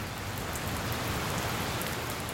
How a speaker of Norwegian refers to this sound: Så har det begynt å regne òg. Enda mer klassisk Bergens.